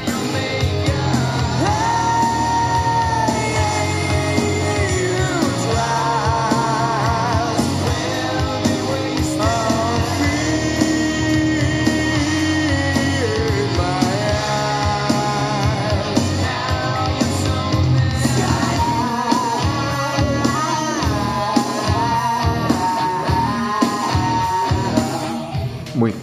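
Grunge rock music plays steadily at full volume, with heavy, dense guitars and a strained, wailing vocal line running through the whole stretch without any pause.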